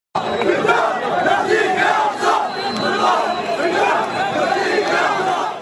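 A large pro-Palestinian protest crowd chants together in a street in Europe, a dense, continuous roar of many voices rising and falling in rhythmic waves, loud for several seconds.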